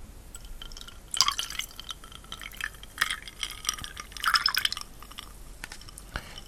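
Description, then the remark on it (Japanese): Tonic water from a previously opened bottle that is losing its fizz splashes and trickles into a glass in uneven bursts, with fizzy crackling and bright clinks rising and fading over several seconds, no one speaking. “これなかなかね、まだ最初に開けたやつまだ残ってるから、だんだん気が抜けてきた最初のあの蓋開けた時のプシューが次第に弱くなってきました”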